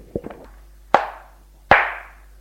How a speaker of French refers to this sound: Vous n'avez pas le droit de me gifler.